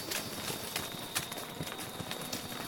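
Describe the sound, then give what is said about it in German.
Horse hooves clip-clop in a quick, steady rhythm, fairly loud, as a ridden horse starts to gallop over a hard surface toward cows near an enclosure. “Oh ja, ich sehe tatsächlich ganz, ups, jetzt wird mein Pferd schon losgaloppieren, um sie”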